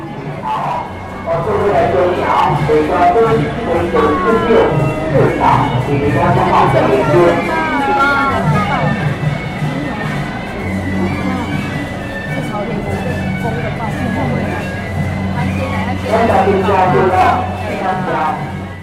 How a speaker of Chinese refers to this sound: 现在你在背景里面听到的就是北港朝天宫庙里面的声音哈，然后你听到的远远处有个锵锵锵的声音，那个是头旗的声音吼。那也就是说，妈祖已经即将快到北港朝天宫了。